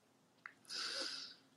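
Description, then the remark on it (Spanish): A single sneeze: a short catch of breath, then a sharp, hissy burst lasting about half a second, heard alone at moderate volume with no talking. “¡Salud!”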